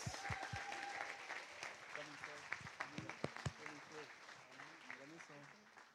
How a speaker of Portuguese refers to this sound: Forte aplauso.